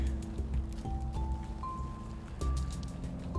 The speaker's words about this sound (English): I haven't noticed any drops, although there, are some on the path. So, yes, it's just raining from the trees. Which again is quite nice. It's nice to hear the rain without getting drops of water down your neck.